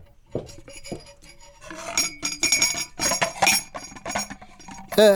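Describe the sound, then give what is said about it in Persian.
Tea glasses and dishes clink repeatedly, light metallic taps and rattles building into a busier cluster of chinks as tea is brought and served. “ببخشید یادم رفت برم چایی بیارم خدا کنه نجوشیده باشه جوشیدش هم قبوله من میخورم”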